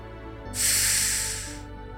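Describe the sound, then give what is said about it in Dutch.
A single slow, deep breath drawn in through the nose during a relaxation breathing exercise, an airy hiss that swells and fades over about a second, heard alone with no talking. “Drie tellen in.”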